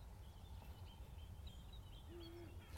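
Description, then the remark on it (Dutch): A Eurasian eagle-owl gives a single deep, faint hoot from some distance near the end, over a steady outdoor hiss with thin songbird calls scattered in the background. “Oehoe oehooooeee”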